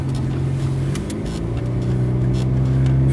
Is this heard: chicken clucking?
no